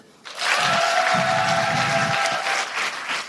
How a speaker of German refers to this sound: Wer kennt alles Busenfreunde, der Podcast? Einmal klatschen bitte.